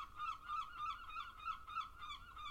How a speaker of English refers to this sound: noisy seagulls.